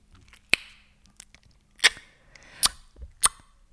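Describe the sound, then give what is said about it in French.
Four sharp, loud tongue clicks are made by following the shape of the palate with the tongue and releasing it sharply while stiffening it. Each is a crisp hollow pop, spaced unevenly with faint softer clicks between them and no talking. “donc tu suis la forme de ton palais, et tu dois lâcher ta langue d'un coup sec en la durcissant pour que ça fasse.”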